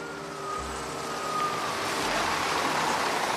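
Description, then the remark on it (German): A bus pulls up, its engine rumbling low as a thin whine fades and road noise swells steadily toward the end, with no voices present. “Ein Bus kommt überraschend vorgefahren mit 50 möglichen Gästen.”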